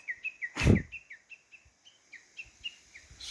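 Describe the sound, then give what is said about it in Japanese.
A bird sings outdoors on a mountain, below the observation deck at the fifth station, in a steady series of short, bright chirping notes repeated in a quick rhythm, with a brief loud thump near the start and quiet background between phrases. “いやなかなか聞けないっすよねあんな見事な歌シマリナイくもそうでしたけどやっぱりあのー、鳥たちの歌って綺麗ですね”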